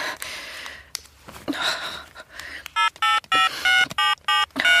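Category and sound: signal or alarm, mobile phone call ringing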